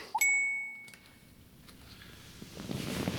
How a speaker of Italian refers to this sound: Notifica della banca.